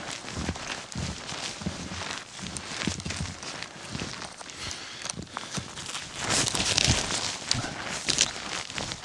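Heavy, clumsy footsteps trample through forest undergrowth, each step crunching and rustling in an uneven rhythm, with twigs snapping and a louder flurry of trampling near the end.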